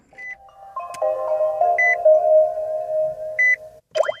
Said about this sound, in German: Das ist kein Computerspiel, sondern der neue Sound in immer mehr norwegischen Garagen. Elektroautos werden nicht mehr angelassen, sondern hochgefahren. Dann piept es und klingelt und im Armaturenbrett blinken bunte Lichter.